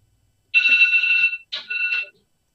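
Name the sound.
mobile phone ringing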